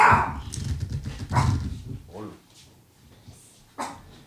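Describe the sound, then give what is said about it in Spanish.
Several sharp, loud barks from a guard dog come in irregular bursts, mixed with bits of human voices around them. “El perro guardián.”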